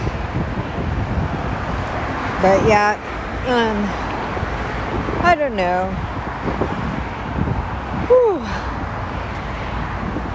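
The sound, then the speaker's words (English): Steady, loud roar of freeway traffic heard while walking over the freeway on a hot, windy day, with gusty wind buffeting the microphone, continuous throughout, while a person speaks briefly and exhales. “I'm walking over the freeway and it's very loud.”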